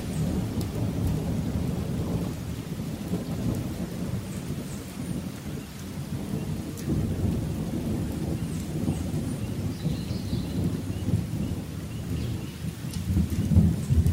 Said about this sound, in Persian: در همین موقع بارون شروع به باریدن کرد